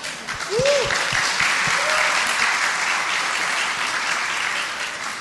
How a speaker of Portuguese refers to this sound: Isso nunca acontece. Palmas assim na hora a gente não Mas tem.